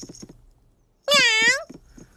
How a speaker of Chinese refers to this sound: 喵。哦。 哦，我想他是要去休息一下。